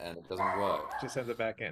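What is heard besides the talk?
puppy barking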